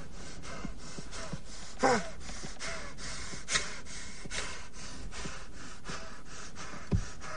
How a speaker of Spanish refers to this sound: Su respiración continúa entrecortada, mientras la leve luz de la llama del mechero deja entrever que se encuentra en un minúsculo y agobiante espacio.